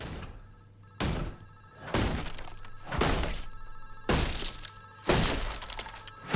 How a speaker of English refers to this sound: Reception are obviously uh, a bit concerned by the sound of gunshots coming from one of their hotel rooms.